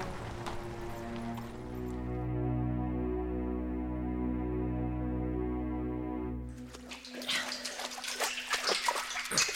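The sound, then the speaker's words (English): A deep, steady droning hum fills the space before giving way to choppy splashes of water echoing inside a deep tunnel under a river; no one speaks. “You sure you don't mind the water?”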